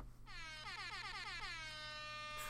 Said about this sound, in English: It's the oh the uh, rap air horn, and uh, if you are oh, born in the okay, 2000s, right, you'll right, understand right. what this is.